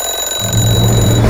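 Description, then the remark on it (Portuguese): An alarm clock rings loudly and continuously, a steady high-pitched tone with a low buzzing hum joining after a brief moment, with no voices present. “O despertador é apenas para anunciar que sempre é hora de combater a dengue.”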